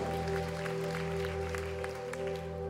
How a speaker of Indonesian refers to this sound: Tepuk tangan yang meriah untuk kemuliaan Tuhan. Amin.